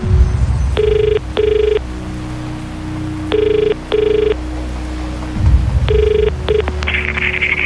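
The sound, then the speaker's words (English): A telephone rings at 7:55 a.m. on 19 August 2019 in the classic double-burst pattern, three pairs of bright trilling rings separated by short pauses, fairly loud over a low background rumble with no one speaking. “The phone woke me up.”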